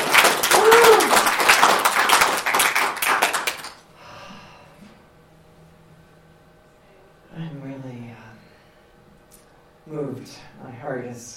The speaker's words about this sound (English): Let's uh, let's give them a big round of applause.